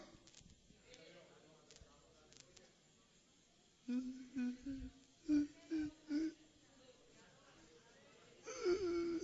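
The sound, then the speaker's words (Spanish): A man's voice imitates crying with a series of short, pitched whimpering sobs in quick succession, then a longer drawn-out wail at the end, moderately loud. “Llorando sin lengua.”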